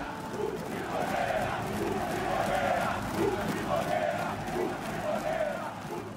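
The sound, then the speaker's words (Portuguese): A large football crowd sings and chants together, a dense wall of voices rising and falling in a steady melodic rhythm, loud and continuous throughout without pause. “O que, que eles estavam cantando ali? Triboneiro?”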